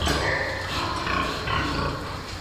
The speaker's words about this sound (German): Auf den ersten Blick ein gewöhnlicher Schweinestall. Sehr modern und ungewöhnlich sauber. Diese Schweine, die sind die saubersten Schweine der Welt.